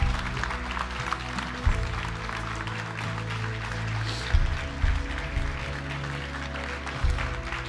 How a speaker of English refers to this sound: Amen. Amen. Come on, give the Lord a big hand clap.